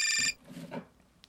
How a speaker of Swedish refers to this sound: Vänta, det ringer.